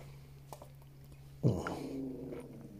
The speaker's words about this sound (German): Es ist einer meiner zwei Hunde knurrt, weil ich nur zwei habe.